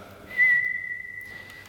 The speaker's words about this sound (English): And where you might hear one note of the bird, like, uh,